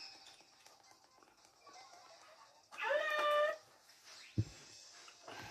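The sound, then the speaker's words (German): A pet cat lets out one loud, drawn-out meow over a faint bed of electronic background noise, followed moments later by a short dull thump. “Meine Katze. Meine Katze.”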